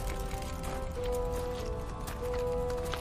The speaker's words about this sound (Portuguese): Vocês começam a descer. Escuta o barulho de, de alguém correndo na direção de vocês.